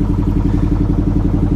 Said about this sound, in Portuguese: Esse barulho que vocês estão ouvindo é do barco. A gente está andando num barquinho alugado e passando por todos os guts.